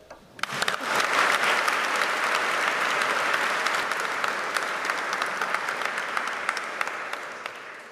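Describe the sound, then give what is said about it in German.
A crowd at a school graduation ceremony applauds the students' passing of their Abitur exams, many hands clapping in a dense, steady roar that starts quickly and holds strong for several seconds before tapering slightly. “Ich glaube, dafür wurde bis jetzt auch noch gar nicht geklatscht.”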